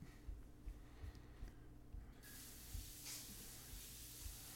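A faint, distant tap turns on partway through and water runs in a steady hiss, as if someone is washing their hands, over a low background hum. No one speaks.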